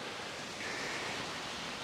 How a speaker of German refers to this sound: So sieht es hier überall aus. Ne? Kommt einfach irgendwo das Wasser aus dem Berg, die Alpen.